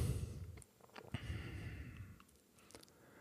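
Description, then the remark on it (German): A slow, deep breath is drawn in and then let out, a soft airy rush lasting about a second before fading into quiet. Fairly gentle, with no talking. “Und dafür schnaufen wir mal ein und aus.”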